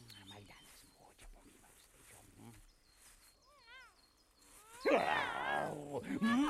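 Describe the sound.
Muffled voices and scattered noises give way to a sudden, loud cat yowl near the end, a wavering, strained screech that rises and falls for over a second, harsh.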